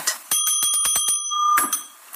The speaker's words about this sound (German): Zum Beispiel hat sie sich bei einem dreiminütigen Gottesdienst gefilmt, am eigenen Wohnzimmertisch mit einfachen Hilfsmitteln. Er beginnt mit dem Glockengeläut.